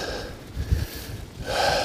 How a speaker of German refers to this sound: Viel Geschnaufe, Keuche Kurzatmigkeit und andere Lungengeräusche. Aber die Lunge muss, sie muss trainiert werden.